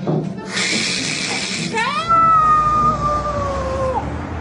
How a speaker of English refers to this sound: It's uh, it's it's not evil, buddy. It's uh, it's radiator, and the heat makes noise when it comes on.